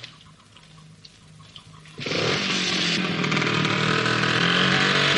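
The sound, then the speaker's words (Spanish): A motorcycle idles with a low, steady rumble, then abruptly revs into a loud, raspy engine roar that holds strong until the end as the rider starts it and rides away. “Kiko la pone en marcha y se va.”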